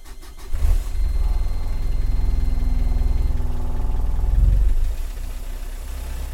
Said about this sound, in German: Ja, und dann lief der Motor endlich wieder. Zumindest so wie davor. Also mit Überhitzungsproblemen und den lieblichen Geräuschen des Antriebsstrangs unter Last.